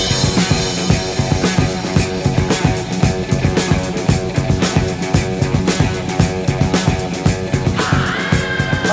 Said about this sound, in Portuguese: Roda aí a vinheta, editor. Um, dois, três e.